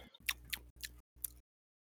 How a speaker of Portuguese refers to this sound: Vai interferir se eu comer assim? Ai, de meu modo Deus. algum. Interessante se tu, mastiga, se tu falasse enquanto mastiga, fica melhor ainda.